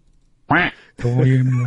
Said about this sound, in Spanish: Tengo que cambiar ese sonido del pato, lugar, güey.